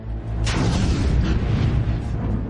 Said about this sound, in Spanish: Cuando conectaron los ventiladores hubo un chispazo y el tanque explotó.